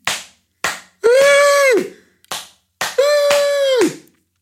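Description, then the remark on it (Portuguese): Hands clap in a repeating pattern: two sharp claps, then a clap with a held, bright tone for under a second, with the whole sequence played twice. No one speaks. “E ele não só começou a bater uma palma da mão na outra, como as restantes pessoas que nunca tinham ouvido aquele gesto para celebrar, um, ou seja, nunca tinha aquele gesto, aquele movimento nunca tinha sido associado a uma celebração”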